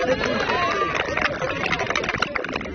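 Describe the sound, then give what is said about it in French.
A crowd in Thailand claps and cheers for the Pinto brothers, two young Frenchmen, in a dense wash of applause, with voices mixed into the noisy, sustained clapping throughout. “Les frères Pinto, là, qui sont là quand même, vous pouvez leur faire des grands applaudissements”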